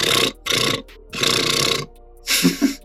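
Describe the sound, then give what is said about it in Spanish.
A voice imitates a powerful, deep, growling bass sound in four rough, buzzy bursts, loud, with short pauses between them and no other sound around. “El bajo también es súper potente.”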